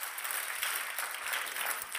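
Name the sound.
audience clapping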